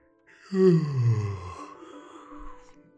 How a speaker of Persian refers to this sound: تازه با اون همه دقت که در کار آرایش خودش به خرج داده بود خمیازه ای کشیده بود و گفته بود